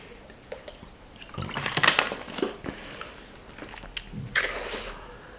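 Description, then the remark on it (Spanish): Water being poured into a glass, followed by a few sips and swallows, with small clinks and splashes, otherwise quiet with no talking. “voy a ver un poco de agua, que, me metéis ansia.”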